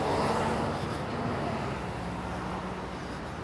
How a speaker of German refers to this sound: sorry übrigens für den Verkehr, bisschen laut, ich muss hier mal über die Ampel.